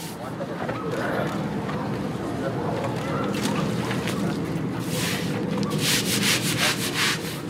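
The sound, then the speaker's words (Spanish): Steady scrubbing of a hard surface as neighbors in Tijuana, Mexico, clean up a pool of blood, rough brushing strokes that grow brisker and more rhythmic toward the end, with a low background rumble throughout. “De hecho, bueno, ahora mismo lo que se escucha son unos vecinos de Tijuana que están limpiando un charco de sangre.”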